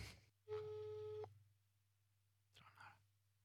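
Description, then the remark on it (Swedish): A single steady telephone ringback tone lasts under a second over a low electrical hum as someone phones a woman, followed by a short muffled rustle or breathy voice. “Eh, då gör jag det, ringer henne nu.”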